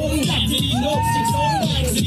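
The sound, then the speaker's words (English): A large crowd cheers loudly and steadily as Vivek Ramaswamy raps on stage at the Iowa State Fair, with rising whoops and shouts cutting through the dense roar of voices for the whole stretch. “And the crowd seems to be into it.”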